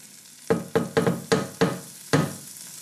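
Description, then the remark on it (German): A spoon scrapes and knocks around a frying pan in six quick strokes, irregularly spaced, stirring in salt and pepper over a steady background sizzle of food cooking. Fairly loud, with no talking. “Da geben wir jetzt gleich eine, eine gute Prise Salz und noch eine zweite, nein, eine Prise Salz geben wir mal dazu, ein bisschen Pfeffer und verrühren. Jetzt können sich die mal anfreunden hier alle.”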